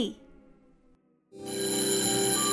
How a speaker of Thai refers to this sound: เอ๊ะเสียงออดดังแล้ว อุ้ยต้องไปเข้าเรียนแล้วล่ะค่ะ